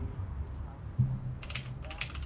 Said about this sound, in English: We can hear him typing away, can't we? Typing something. Yeah. Is he typing?